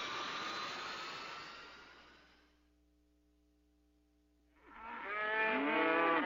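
Two loud, drawn-out cow moos, one fading out at the start and another rising near the end, with a low steady hum filling the quiet gap between them.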